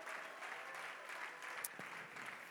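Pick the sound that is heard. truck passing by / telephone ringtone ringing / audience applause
audience applause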